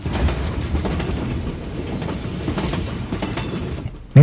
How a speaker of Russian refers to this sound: В сердце этого бешеного движения скрипел и грохотал наш поезд.